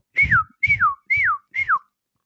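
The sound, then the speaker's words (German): Four shrill marmot whistles in a steady series, each a short, high call that slides downward in pitch, separated by brief pauses, with no talking. “das ist kein Vogel, das sind Murmeltiere.”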